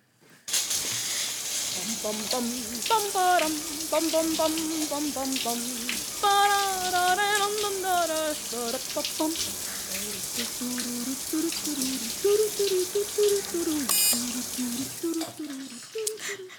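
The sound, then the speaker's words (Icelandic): A shower runs with a steady, bright hiss of spraying water while a man sings a wavering, wordless-sounding melody over it, his voice rising and falling throughout. “við fáum annan styrtusöngvara hvað er hann að syngja hér?”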